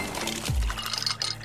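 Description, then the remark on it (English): Water from the internal dispenser of a Samsung Bespoke refrigerator's Beverage Center pours into a glass in a short burst, with a low thud partway through and faint clinks as the stream fills it. No one speaks. “Those are the sounds of the Samsung Bespoke Refrigerator's Beverage Center with internal water dispenser and built in pitcher with flavor infuser for crisp, refreshing water”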